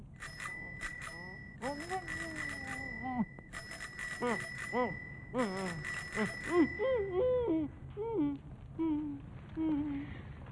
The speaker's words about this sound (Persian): آخ جان این صدای زنگ دوچرخه کلا قرمزیه